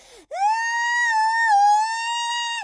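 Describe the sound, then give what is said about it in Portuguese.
A lone voice imitates the shrill shrieking of women singing polyphonically, all at once, holding one piercing, steady high note for a couple of seconds, loud, after a brief lower sound at the start. “E depois as mulheres começavam a cantar todas ao mesmo tempo, mas cada uma para o seu lado, com uma por cima a guinchar, assim.”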